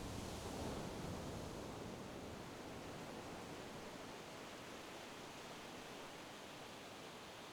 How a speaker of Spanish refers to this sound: Con el sonido de las olas de fondo, Intenta respirar profunda y lentamente hasta llenarte completamente del aire limpio del mar.